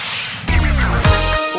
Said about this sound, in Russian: А, ну, ну что ж, кажется, сорвали стоп-кран. Да, сорвали стоп-кран. У нас... Стоп-кран!